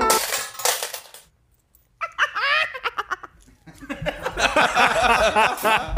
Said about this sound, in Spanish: Gracias por tirar monedas aquí